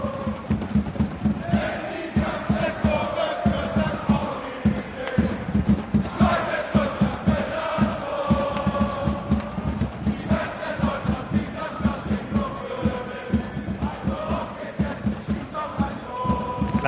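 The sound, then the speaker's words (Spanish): A huge crowd at the São Paulo football stadium chants in unison, a dense roar of many voices rising and falling in steady rhythmic phrases, loud and continuous throughout with rhythmic thumps underneath. “Pero eh, el, estadio de Sao Paulo, la forma que tiene de sonar, eh, me ha traído un sonido porque nada mejor que ilustrarlo con el, con el sonido real.”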